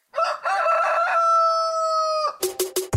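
A rooster crows loudly, one long cock-a-doodle-doo with a rising start and a sustained, wavering final note, followed by a few brief clucks.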